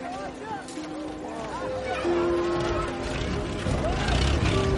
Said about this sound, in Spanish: Un coche pasa a su lado.